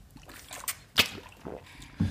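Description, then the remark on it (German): Quiet sounds of drinking water from a pink bottle: a soft slosh of liquid, a sharp click or tap near the middle, and a brief swallow-like thump at the end. “Vielleicht noch einen Schluck Wasser nehmen von meiner wirklich schönen pinken Flasche.”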